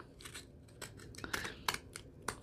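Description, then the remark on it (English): Decorative scallop-edged scissors snip repeatedly through dry paper, a series of crisp, rustling cuts at an uneven rhythm, with no talking. “Now I want to turn the scissors over so my scallop will be going the same way or the opposite way on the other side.”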